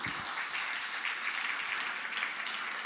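An audience applauds steadily for the full three seconds, a dense, even wash of many hands clapping at once with no voices standing out above it.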